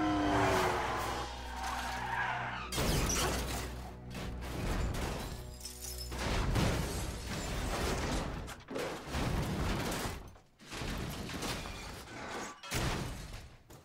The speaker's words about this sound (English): But shortly after a jump, he finds Vesper tied up in the middle of the road, causing Bond to turn the wheel very sudden to avoid Vesper, leading to a very, very violent car crash. It's, it is fatal.